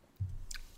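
A wine glass set down on a hard surface: a soft low thud followed moments later by a brief, bright clink, then quiet. No one speaks.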